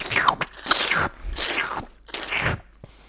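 Close, crisp crunching as pistachios are cracked open and chewed, with four dense bursts of crackling and a few sharp little shell snaps in between, no talking.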